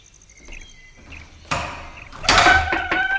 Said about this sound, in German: Nachdem sie geklingelt hatten, tat sich erst eine Zeit lang gar nichts. Doch als O'Brien gerade ein zweites Mal läuten wollte, öffnete sich die Tür.